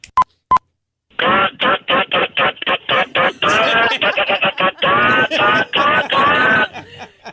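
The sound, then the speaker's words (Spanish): A person imitates a hen laying an egg with a run of quick, rhythmic clucks building into longer, drawn-out squawks, loud and close. It starts with two short electronic beeps. “una gallina poniendo huevo.”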